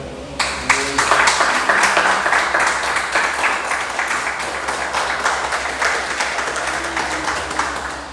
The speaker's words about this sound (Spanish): Dale un aplauso a Dios.